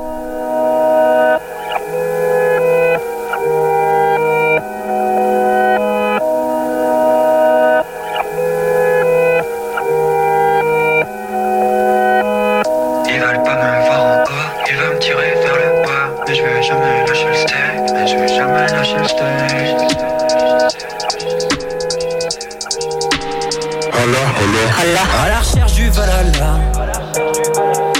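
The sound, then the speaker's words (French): A loud hip-hop track by an artist from Angers, France, plays throughout, opening with steady repeating synth chords before a busier, denser beat kicks in around the middle, with a French-language rap vocal delivered over the music. “On va écouter un artiste angevin qui s'appelle … et c'est ….”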